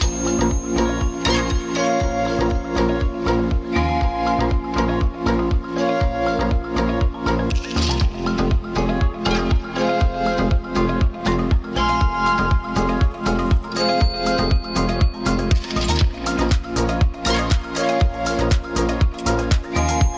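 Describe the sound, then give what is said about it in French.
A steady, rhythmic piece of music composed by mixing recorded sounds of doors, floorboards, locks and clocks from a château with harpsichord and organ tones, playing loudly and continuously with no talking. “Des bruits de portes, de parquets, de serrures, d'horloges, des sons de clavecin ou d'orgue, des instruments qu'on trouve dans les salons du château et puis il a mélangé tout ça pour composer ce morceau.”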